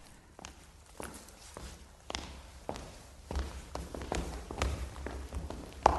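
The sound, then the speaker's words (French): Numerous footsteps in a corridor, a brisk irregular patter of steps from several walkers growing gradually louder as they draw nearer, with a sharper thud near the end. “Dans le couloir, de nombreux pas approchaient.”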